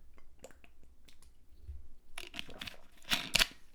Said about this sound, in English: i take a sip of my water